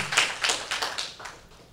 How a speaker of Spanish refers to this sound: Dele una ofrenda de palmas al Señor, aleluya.